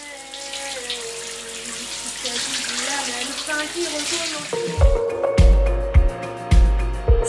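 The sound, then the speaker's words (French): Water pours steadily, like a shower running, a continuous hiss for several seconds before heavy low thumps and sharper hits cut in near the end. “il faut sortir de la douche.”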